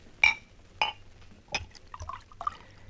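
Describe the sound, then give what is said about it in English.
Whiskey is poured from a bottle at a bar: a few sharp glassy clinks, then short gurgling splashes of liquid filling a glass, with no one talking. “Leave it on the bar, Harry. We'll pour our own.”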